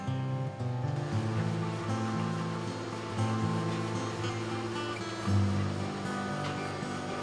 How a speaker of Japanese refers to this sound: 最後に蒸気に当てながら縮んでいる生地を適正な幅に引き直していく湯のし作業です